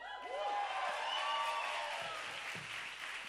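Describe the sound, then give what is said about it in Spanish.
A live audience in the Sala Julián Carrillo applauds steadily, a dense wash of clapping with a few whoops and cheers rising over it, sustained at a fairly even level throughout. “A ustedes, nuestro querido público, tanto al interior de la sala como nuestros radioescuchas, como los que están afuera en el lobby, un fuerte aplauso, por favor.”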